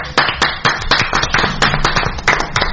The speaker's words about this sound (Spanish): Aplausos, por favor.